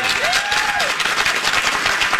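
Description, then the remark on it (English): Steady, dense applause from a crowd, many hands clapping at once in a continuous wash of noise, with a brief whistle rising and falling early on. No one speaks. “I'm getting rid of the applause.”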